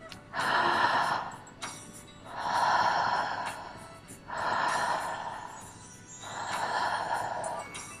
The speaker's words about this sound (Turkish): Ağızdan nefes alıyorum. Ağızdan nefes veriyorum. Nefes alıp vermeye devam ediyorum.